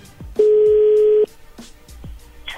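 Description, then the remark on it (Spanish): A telephone being redialed: one steady, fairly loud electronic tone lasts just under a second, surrounded by a few soft, low thumps. No one speaks. “A ver, permíteme, se está marcando de nuevo.”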